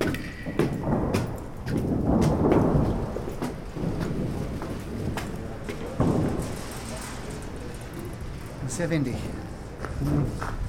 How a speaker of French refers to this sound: Quel vent je n'avais pas l'autorisation de venir ici. Seuls les techniciens avaient accès au toit.